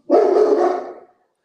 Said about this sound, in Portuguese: O meu cachorro está começando a latir na hora que eu estou falando.